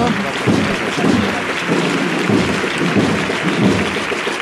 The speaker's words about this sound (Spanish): Ovación a la Macarena, ovación a la cuadrilla.